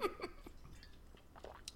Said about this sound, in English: Let me take a big sip.